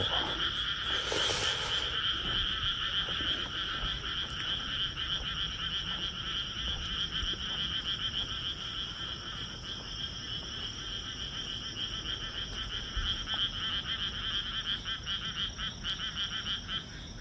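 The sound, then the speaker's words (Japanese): A dense chorus of frogs croaking continuously outdoors at a rice paddy at night, many voices overlapping in a steady rhythmic trill, with a brief louder burst near the start and no talking. “カエルもね、ほとんど見ることないですからね。”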